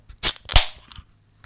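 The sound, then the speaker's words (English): A large Bud Light beer can cracks open: two sharp, loud snaps about a third of a second apart, the second trailing into a short fizzing hiss, followed by a few faint clicks. “It's so big; it has a different sound. Like you can hear that it's it bigger.”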